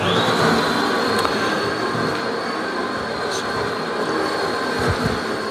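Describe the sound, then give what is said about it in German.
A fully automatic coffee machine's grinder grinds beans for a small cup with a loud, steady, rough whirring roar and a thin high whine riding on top, continuous for several seconds without pause. “Ich gehe ein Stück zur Seite, bis das das Malwerk fertig ist.”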